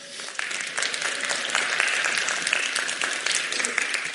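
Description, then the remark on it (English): A crowd applauds steadily as a reader makes her way up to read Psalm 131, many hands clapping in a dense, continuous patter that stays fairly even in loudness for the whole stretch, with no one speaking over it. “And as she does, can you guys give her a round of applause?”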